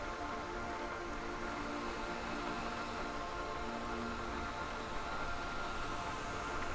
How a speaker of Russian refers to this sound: Профи выключает фен.